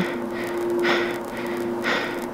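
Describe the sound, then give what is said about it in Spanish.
Heavy, rhythmic breathing comes through a phone or radio line, two loud breaths about a second apart over a steady electrical hum, with no one speaking. “No hubo respuesta, solo su respiración.”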